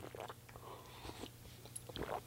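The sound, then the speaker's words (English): Quiet mouth noises of someone sipping coffee: soft slurps and a swallow, with faint wet clicks and smacks spread across a couple of seconds and no talking. “I'm gonna have another sip of coffee.”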